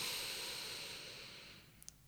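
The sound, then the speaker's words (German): A long, soft, airy deep breath is drawn in steadily for almost two seconds, fairly quiet, fading toward the end with a couple of tiny clicks. No one speaks. “Nochmal tief einatmen”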